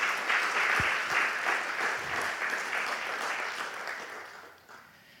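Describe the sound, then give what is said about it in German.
An audience applauds steadily as applause given to God, a dense crackle of many hands clapping at once, holding strong for several seconds before thinning and fading toward the end. “Gott ein Applaus, nicht mir, Gott ein Applaus.”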